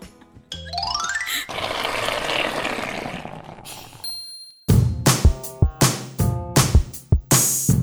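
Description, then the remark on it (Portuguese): A toilet flush rushes loudly for a few seconds after a quick rising whistle-like tone, then gives way to a string of bright, rhythmic chiming hits, like a short musical sting. “Aí vai dar descarga.”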